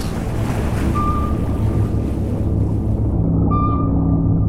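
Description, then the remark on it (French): A steady wash of ocean waves and rumbling wind fills the scene, with a low mechanical hum and faint tonal beeps from aboard a submarine at sea, no voices. “Quelque part, au large de l'océan numérique, à bord du sous-marin AM4”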